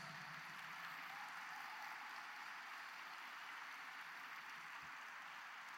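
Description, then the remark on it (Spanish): A church crowd breaks into steady, sustained applause for those who raised their hands to receive Jesus, a dense wash of many hands clapping at an even level throughout, with no voices standing out above it. “Dales un fuerte, fuerte aplauso.”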